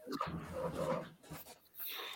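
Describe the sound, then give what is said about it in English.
A dog pants, quick breathy huffs coming in a few uneven bursts with short pauses between, heard on its own without any talking. “Oh, I just uh, made sure my dog was all right.”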